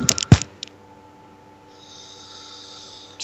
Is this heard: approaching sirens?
no